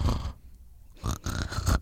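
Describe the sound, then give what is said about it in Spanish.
A person imitates with their voice the snoring of someone with sleep apnea: a rough snort, then a silent pause, then several raspy, grunting snore sounds, fairly loud. “Porque es el que ronca y se queda.”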